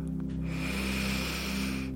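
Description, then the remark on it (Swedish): A deep, drawn-out inhale during a mindfulness breathing exercise, fairly loud, with a steady breathy rush that fills the moment without any talking. “Andas in.”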